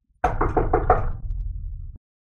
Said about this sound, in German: Ich würde dann irgendwann vor einem Raum stehen bleiben. Ähm, kurz, äh, irgendein Raum, kurz klopfen, ob jemand drin ist.